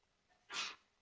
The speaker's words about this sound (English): Bless you.